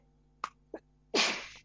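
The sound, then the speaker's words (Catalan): A single loud sneeze: two short sharp intakes of breath build up to an explosive burst that trails off over about half a second, with no talking. “Salut.”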